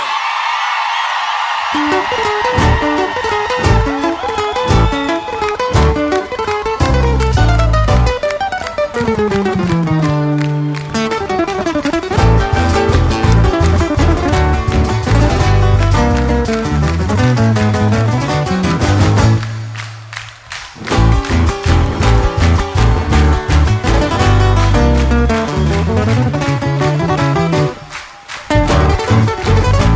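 A gaucho folk song plays loud and steady, with a bouncing bass line under bright, layered harmony and a melodic lead, dropping out briefly twice before picking back up.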